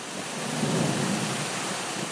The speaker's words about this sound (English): In the video game, rain starts to fall inside the room. Soon, it's a downpour.